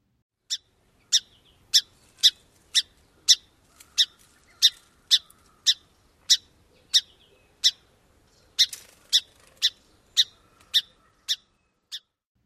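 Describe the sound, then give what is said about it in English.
A series of sharp, short, warm and round song sparrow chip calls repeats at a steady pace, roughly twenty notes spaced about half a second apart, clear with no other sounds. “So, one more time Song Sparrow Chip.”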